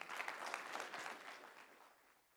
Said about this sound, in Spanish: Gloria a Dios por sus ancianos. Un aplauso por los ancianos de la iglesia.